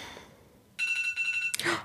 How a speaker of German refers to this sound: Mein Wecker klingelt. Für euch. Wenn ihr wüsstet, wofür der Wecker ist, wie verrückt. Es ist, ähm, ich wusste sogar vorhin, als ich den gestellt habe, heute Morgen habe ich ihn auf 14 Uhr gestellt. Es ist jetzt 14 Uhr, wo ich gerade aufnehme.